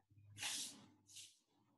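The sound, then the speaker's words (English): Two brisk, breathy swishes like a broom sweeping across a floor, the first longer and louder, the second shorter, over a faint low hum. “Why does it sound like someone's sweeping?”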